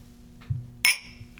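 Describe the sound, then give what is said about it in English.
A single bright clink of glasses of tequila touching in a toast, sharp, ringing briefly over a low hum with a soft thud just before. “Cheers. Cheers.”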